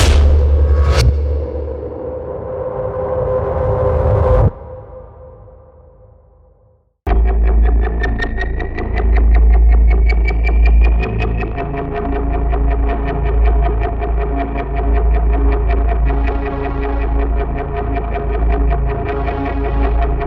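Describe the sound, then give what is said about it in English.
Demo of a 9 GB sound design collection of over 1,000 sounds for scoring thrillers and suspense projects: a sharp impact rings into a dark, decaying drone that fades out, then a loud, dense pulsing texture with deep bass and eerie sustained tones kicks in. “It's full of fresh new content for scoring thrillers and suspense projects.”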